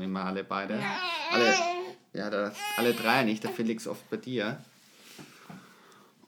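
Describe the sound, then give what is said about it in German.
A small boy fusses and whines in high, wavering bursts, mixed in with adults talking over the top. “die Hintergrundgeräusche von, ja, vom kleinen Mann die können ja.”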